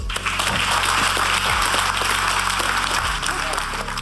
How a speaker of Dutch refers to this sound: Voor nu wil ik deze ronde afsluiten. Gaan we naar de derde ronde. Geef ze een warm applaus.